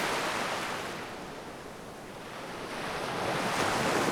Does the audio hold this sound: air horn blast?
no